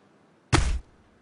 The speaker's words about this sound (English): That's often done by sticking a knife in vegetables, usually cabbage.